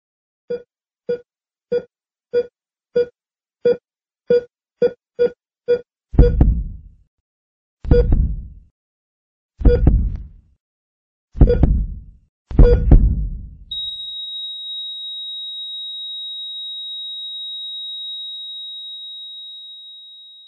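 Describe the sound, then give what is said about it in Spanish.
A hospital heart monitor beeps in a steady, quickening rhythm, joined by deep heartbeat thumps, before the beeping gives way to a long, unbroken high flatline tone. No voices. “Todos hemos escuchado este sonido. ¿Y a quién no le causa escalofríos? Nos trae a la mente hospitales, enfermedades, muerte.”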